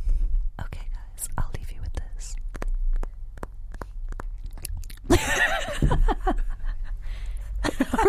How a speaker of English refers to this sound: I feel like we should do an ASMR goodbye.